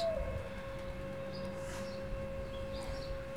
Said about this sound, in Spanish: Se escucha también un ruido. Un, ruido de, un, generador, un, motor.